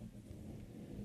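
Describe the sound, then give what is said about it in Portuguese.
A steady, low rumbling scrape of something heavy being dragged upward during construction work in the building, continuing without a break for about a second, with no voices. “que barulho é esse? Né? Um barulho tão tá arrastando o quê para cima?”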